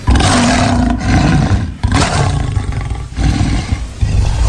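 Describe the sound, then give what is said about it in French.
A lion roars loudly, a deep, rumbling bellow that continues for several seconds with a couple of brief breaths between surges. No one speaks. “Alors les gars, ça rappelle quoi euh, c'est un lion.”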